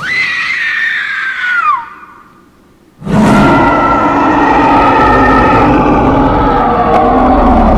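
A woman lets out a long, high-pitched scream of terror that wavers and falls away, followed after a brief pause by a sudden, loud, sustained roaring rumble that fills the rest.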